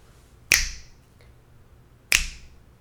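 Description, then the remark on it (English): Two crisp finger snaps, about a second and a half apart, each a sharp bright crack with a short ringing tail, against a quiet background. “Snap.”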